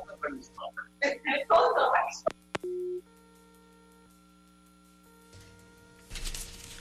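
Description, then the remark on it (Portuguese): The garbled voice of secretary Daniel Beltrame, interviewed over a phone line on Band News FM radio, cuts off with a couple of sharp clicks, followed by a short, loud telephone busy tone as the call drops, then a faint steady hum and a burst of static. “Acho que perdemos o contato com o secretário Daniel Beltrame.”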